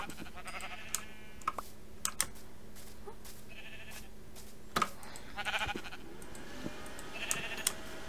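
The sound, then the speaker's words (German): Several short, nasal sheep bleats from a video game repeat at irregular intervals, mixed with sharp keyboard and mouse clicks over a low, steady background hum. No one speaks. “Oh, ein Schaf.”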